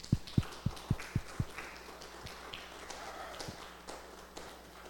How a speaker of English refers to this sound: Can we just give a round of applause this morning for those?